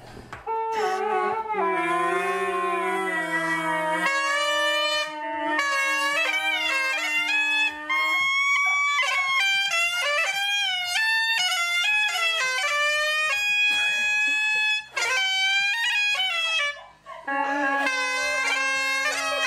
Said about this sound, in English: We'll play a little audio right here of bagpipes on helium.